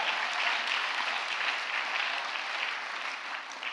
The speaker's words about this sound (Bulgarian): О, ако ръкопляскаш, ръкопляски, като че си в църквата.